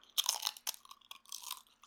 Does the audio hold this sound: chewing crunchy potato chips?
yes